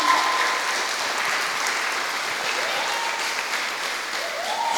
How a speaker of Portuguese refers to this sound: Você pode aplaudir ao Senhor, irmãos amados?